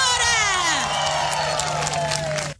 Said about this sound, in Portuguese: para irem gritar numa passadeira vermelha colocada à porta de uma discoteca no Algarve